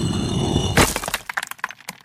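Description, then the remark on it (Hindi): A loud, sharp crack as a heavy stone grinding pestle (the batta of a sil-batta) splits apart by itself into three equal pieces beside a mulberry tree in a courtyard, followed by a quick scatter of smaller clattering knocks as the pieces settle, with no voices. “और वहीं पे अपने आप चटक के टूट गया और ठीक बराबर के तीन टुकड़ों में उसके हिस्से हुए”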